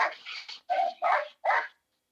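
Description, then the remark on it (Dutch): Dogs playing outside bark in a quick, uneven burst of four sharp, fairly loud barks, with a short pause after the first, then silence. No one speaks. “Ja, de hondjes zijn aan het spelen buiten.”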